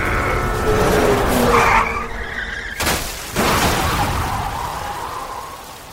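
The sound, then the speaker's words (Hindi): Car tires skid and squeal loudly for a couple of seconds as an engine roars while the driver loses control of the car, then a sharp bang as the car crashes into a tree, before a second rush of engine and tire noise that slowly fades out. “मानव अपनी कार पर काबू खो चुका था कार एक पेड़ से टकरा जाती है”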